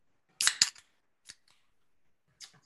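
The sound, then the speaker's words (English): A Highland Brewing Daycation beer being cracked open: a sharp snap with a quick fizzy hiss, a few faint clicks, then a second brief hiss moments later. No one speaks. “Go ahead and crack that open for our listeners”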